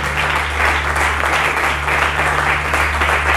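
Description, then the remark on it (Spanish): An audience applauds steadily, a dense wash of many hands clapping at once, sustained and fairly loud with no pauses, over a low, constant electrical hum. “Si vas a aplaudir, los fuerte.”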